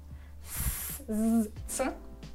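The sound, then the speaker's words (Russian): A voice makes a long, steady hissing 's' sound, followed by a brief voiced hum and then a shorter sibilant hiss, demonstrating speech sounds. “начинают формироваться свистящие звуки.”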